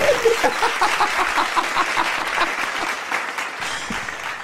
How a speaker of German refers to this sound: Das war nicht der Applaus. Das war nicht der Applaus. Ich lasse mit dem Applaus. Ich weiß nicht. Und ja, da ist ein Applaus. Hey!